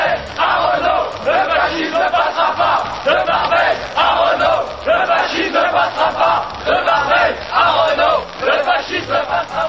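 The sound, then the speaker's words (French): A large crowd following a funeral procession from Place Clichy to Père Lachaise cemetery calmly chants slogans in rhythmic unison, voices surging and falling in repeated phrases, loud and dense, with a steady low rumble underneath. “sur le parcours, les passants se sont inclinés devant le convoi funèbre, tandis que l'imposante foule qui le suivait, dans le calme, scandait des slogans.”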